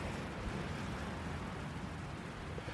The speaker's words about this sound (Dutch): En ik loop nu het strand op. En het waait heel hard. Ik hoop dat ik een beetje verstaanbaar ben boven de wind uit.